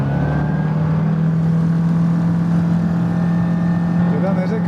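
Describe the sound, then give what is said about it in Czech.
A small sport airplane's engine roars just after takeoff, recorded on board, a loud, steady droning hum with a strong low tone and buzzing overtones that holds its pitch throughout. “A teď do reportáže vstoupím později doplněným zvukem, protože těsně po startu v tomto malém sportovním letadle”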